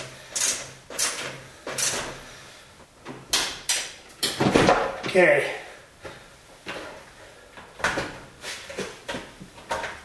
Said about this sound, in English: Screws out. The door panel is loose and I got a hold of it. Make sure there's no wires or anything that could break.